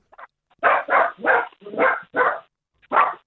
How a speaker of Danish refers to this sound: det lyder som om, det er Frederik Harhoffs hund, vi har fået øh, ringet op til.